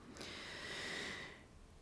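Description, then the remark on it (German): A single deep, airy breath drawn in and let out slowly, fairly soft, lasting about a second with a hissy, breathy texture and no talking. “Und einmal tief atmen.”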